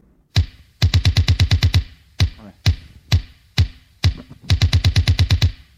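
Punchy sequencer-driven drum machine rhythm, the opening bars of a 12-inch single: rapid machine-gun bursts of identical kick hits in eighths, broken by single accented hits, a sequenced pattern with bright transient clicks, loud and repeating without any voices.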